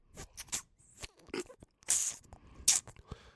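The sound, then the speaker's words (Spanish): A voice mimics a squashed, buzzing wasp with a string of raspy bursts and a thin squeaky whine, stuttering and uneven across a few seconds. “Y medio zumbido, medio... O sea, como una avispa que, está lo pero la estás aplastando un poco.”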